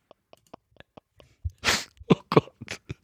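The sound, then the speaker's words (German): A brief coughing fit: a few faint clicks, then a loud, breathy burst followed by several sharp, rapid coughs of varying strength. No one speaks. “Das ist absolut also du lachst, nicht, du hast einen Hustenanfall.”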